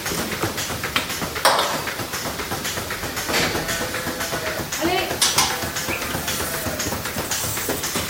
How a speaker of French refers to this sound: Il y a les cinq premières vaches qui sont déjà passées. Et donc là, il y a une autre partie du troupeau qui est en train de rentrer sur la machine de traite.